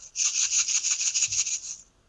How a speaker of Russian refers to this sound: более мягкий, это звук риса.